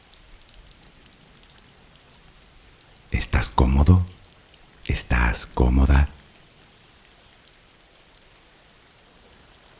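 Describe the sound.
Steady, soft rain hisses throughout as a continuous wash of noise, a rain background for sleep relaxation, while a calm voice speaks two short phrases over it in the middle.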